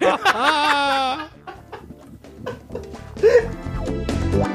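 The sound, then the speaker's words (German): A person imitates a chicken, making a run of loud, warbling clucks with rising and falling pitch, followed by a few more squawky vocal bursts. “Du Huhn.”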